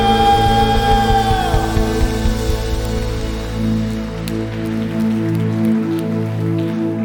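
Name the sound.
audience applause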